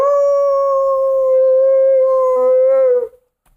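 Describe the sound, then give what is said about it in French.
A small dog in Montréal howls in one long, sustained, steady-pitched note for about three seconds, with a brief wavering at the end before it cuts off; loud, no talking. “Le chien a hurlé toute la nuit. Il y a des loups à Montréal.”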